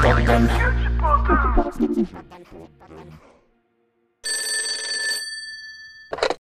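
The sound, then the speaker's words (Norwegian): A telephone bell rings loudly, one sustained trill followed by the start of a second short ring, after a noisy opening with voices that fades into a brief silence. “Så kjekk du ringte.”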